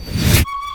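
train horn blaring

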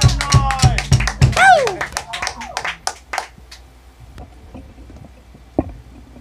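applause

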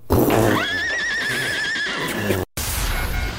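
horse neighing

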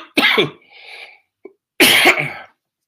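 coughing fit

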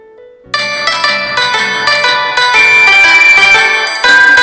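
bell ringing

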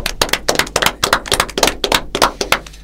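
applause

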